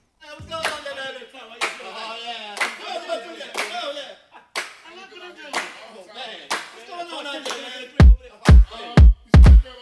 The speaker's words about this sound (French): Et eh ben on va s'écouter un morceau